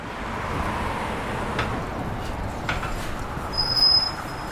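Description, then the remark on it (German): A bus rumbles up to a stop amid steady street noise, its engine growing slightly louder before a brief high brake squeal near the end. No one speaks. “Der Bus kommt.”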